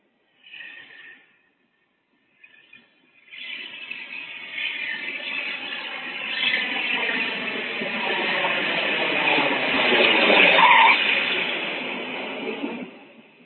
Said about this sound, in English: You only know you have descended because of the noise, because the landing itself is so smooth, you didn't even feel a bump.